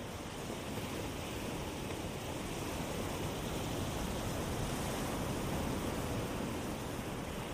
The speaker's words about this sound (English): allow your mind to create an image of a gentle wave washing up onto a beach.